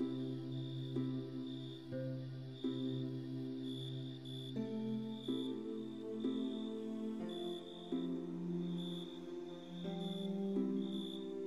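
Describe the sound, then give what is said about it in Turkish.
A steady, pulsing high-pitched cricket chirp at night runs through the whole clip, softly layered over gentle sustained musical tones that shift every second or two, with no voices. “Cırcır böceklerini susturabilir misin?”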